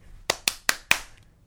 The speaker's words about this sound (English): Just to try and express this in audio form, it's kind of knee, clap, hand, clap, hand over hand, potato hands, elbow, point twirl, repeat three times, and there's knee, clap, hand, clap, finishing with clap in the air.